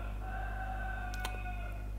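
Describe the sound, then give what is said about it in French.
A rooster crows faintly at around 4:30 in the morning, a long drawn-out call over a steady low hum, with a couple of brief clicks partway through. “je ne sais pas si vous entendez le coq, euh, il y a une coq.”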